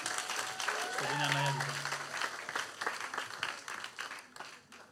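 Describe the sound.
An audience applauds steadily, dense overlapping clapping filling the whole stretch at a fairly loud level, with a brief voiced shout or cheer rising over it early on.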